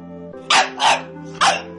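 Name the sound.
dog barking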